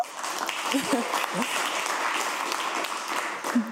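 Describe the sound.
Steady applause from a crowd in a studio, a dense wash of clapping that holds at an even level for several seconds, with a few voices briefly rising through it.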